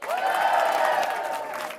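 A crowd applauds loudly and steadily, with cheering voices mixed into the dense clapping, welcoming comedian Anders Torgenes onto the stage, sustained from start to finish of the short stretch.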